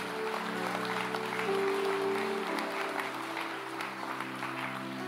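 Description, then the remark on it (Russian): A large audience at a conference applauds in a dense, steady roar of clapping that holds at the same strong level throughout, with a low sustained droning tone underneath for the first half. “Да, и огромные аплодисменты идет.”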